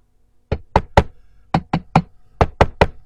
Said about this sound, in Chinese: 他们开着车，一趟又一趟的运来原木和木板。在一阵 乒了乓啷的敲打声中，漂亮的两层房子眼看就要盖好了。